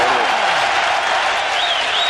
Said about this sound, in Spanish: Claro que sí, pedazo de ovación para ese machacón que nos vamos, que nos vamos a preparar esta semana.